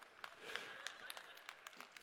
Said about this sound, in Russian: Видимо, парни хлопают.